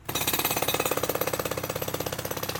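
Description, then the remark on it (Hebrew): A jackhammer pounds steadily at a building construction site on HaBesht (Ba'al Shem Tov) Street in Jaffa, where buildings are undergoing urban renewal. Its rapid, evenly spaced blows form a loud, continuous rattling rhythm with no voices. “וכשאתם עומדים מול הבניינים האלו, שנמצאים בבנייה, אתם אולי חושבים שזו רק ההתחלה.”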